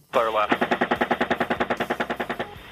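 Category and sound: impact, helicopter machine gun fire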